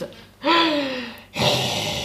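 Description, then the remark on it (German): A person loudly imitates a man's heavy mouth breathing, breathing through the mouth instead of the nose: a long, voiced, gasping inhale followed by a strong, breathy exhale, with no other sounds. “Und alleine das und ähm, er atmet nicht durch die Nase, sondern durch den Mund.”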